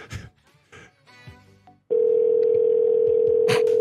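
A telephone call being placed back to a number: a quick run of short electronic tones and chirps, then a loud, steady, unbroken line tone that holds to the end. No one speaks.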